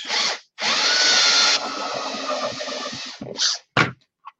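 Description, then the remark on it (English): A power drill fitted with a step drill bit whines up loudly and grinds through plastic, enlarging a hole toward its half-inch mark, its pitch shifting as it bites, then a couple of short bursts follow before it stops. No one speaks. “I'm going to use the stepper bit here. Uh, and it has a half inch mark on it.”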